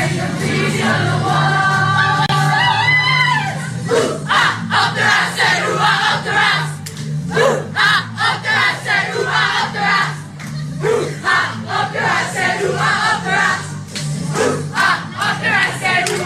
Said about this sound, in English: team singing ooh ah up the Ra in a dressing room